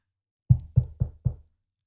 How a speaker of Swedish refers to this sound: Strax därefter hördes en lätt knackning på dörren och en röst ropade.